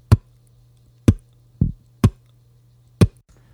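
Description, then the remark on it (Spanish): A voice imitates the bass drum of a drum kit, made by pressing the lips together as if to say a P without any vowel: five short punchy lip-popped kicks in a loose rhythm, thumping and low with a crisp attack, over a faint steady hum with no speech. “El bombo suena de esta forma.”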